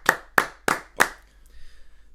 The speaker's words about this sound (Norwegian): Jeg syns det er så tøft, det der. Da reiser du deg, klapper og juble